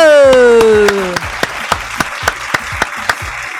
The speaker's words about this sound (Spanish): Y también vamos a agradecer y a darles un aplauso a ellos, que son la química de Almagro.